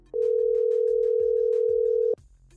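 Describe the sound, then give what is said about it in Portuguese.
A single steady telephone ringback tone of an outgoing phone call sounds for about two seconds, loud and continuous, with faint background voices and noise underneath before it cuts off. “Vamos ligar para o Salém agora?”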